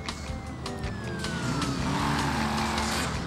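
A car engine drones steadily in a driving game as the player cruises a car with a little notoriety in a Loan Shark Hard event, its pitch sliding and rising as it accelerates, with a faint siren-like tone sweeping in the background and no talking.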